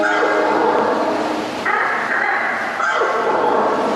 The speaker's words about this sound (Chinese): 听见他们发出的声音了吗？盗龙聪明到可以互相交流沟通，让他们能像个团队一样的追捕猎物。